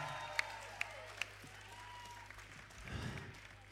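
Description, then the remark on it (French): A concert audience applauds in a steady wash of clapping, with a few sharp individual claps standing out early on and a brief swell of crowd voices near the end. “Je voudrais qu'on fasse un maximum de bruit, s'il vous plaît, pour Thomas aux Lumières.”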